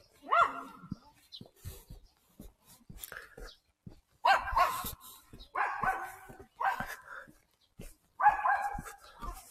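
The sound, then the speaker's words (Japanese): Dogs out on walks, three groups of them, bark in short, repeated bursts, about five or six clustered yaps spread unevenly across the stretch, fairly loud, with quieter gaps of outdoor ambience between them on a fine, pleasant day. “3組も、犬のお散歩が、おります。”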